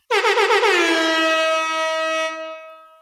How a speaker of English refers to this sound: We deserve an air horn.